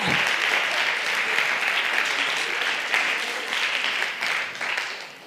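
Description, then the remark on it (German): Sustained applause from an audience in a university lecture hall, the queer people present clapping when asked, many hands clapping in a dense, steady wash for several seconds before tapering off at the end. “Äh, wie, viele wie, viel haben äh, wie, wie viel Queers haben wir hier im Hörsaal? Einmal klatschen, bitte.”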